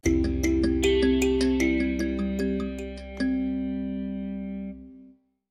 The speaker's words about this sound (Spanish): En eso, Sid le suena notificación de mensaje, y era de Brock.